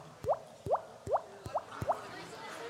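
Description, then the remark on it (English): A voice imitates water drops with five evenly spaced, rising 'bloop' sounds, fairly loud, each a quick upward-sweeping pluck over a quiet background. “Uh, you can make a, a drop.”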